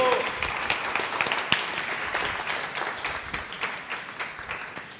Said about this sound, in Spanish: Vamos a agradecerle al fotógrafo primero que nada que va a tomar la foto, ¿no? Un aplauso aquí al de la foto.